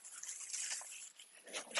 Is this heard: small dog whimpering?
yes